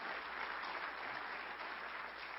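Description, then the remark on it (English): A large crowd applauds steadily, with dense, continuous clapping and some cheering filling the whole stretch at a strong, even level, as a church audience celebrates a man's acceptance of Jesus. “And, and let's, let's cheer just like heaven is right now, celebrating his salvation.”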